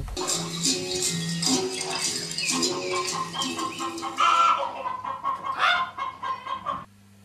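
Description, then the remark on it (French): A hen clucks continuously and busily, short repeated calls overlapping in a dense, steady stream for about seven seconds before cutting off abruptly. “Elle était une poule du dimanche, encore vivante parce qu'il n'était que 9 h du matin.”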